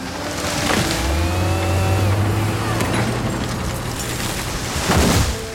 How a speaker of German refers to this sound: Und im Nordwesten Brasiliens, im Amazonasregenwald, machten Kettensägen und Bulldozer Platz für neue Felder.